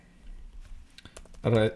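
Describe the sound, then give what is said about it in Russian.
Quick, irregular clicks of typing on a computer keyboard, fairly quiet, as someone types a dream-book search query (parents, accident, car), followed by a short burst of voice at the end. “вот так я введу родители, авария, машина, сонник.”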